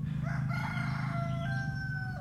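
A rooster crows once in a long, drawn-out call with rising and falling pitch, fairly close and clear, over a steady low rumbling hum in the background.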